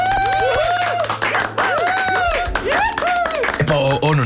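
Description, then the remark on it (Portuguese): A burst of applause sound effect, dense continuous clapping with crowd noise and swooping high-pitched tones over it, loud and sustained for a few seconds. “não traz exagerado um bocadinho com estes aplausos?”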